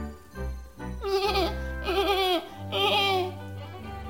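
animal, young goat bleating

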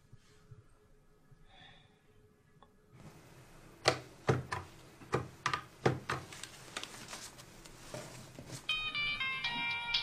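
signal or alarm, telephone ringing

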